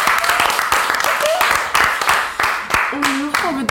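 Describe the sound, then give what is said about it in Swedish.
A small crowd claps steadily and continuously, with voices calling out and a few whoops rising over the applause near the end. “Applåd!”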